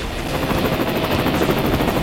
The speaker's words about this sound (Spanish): dispara desde un helicóptero.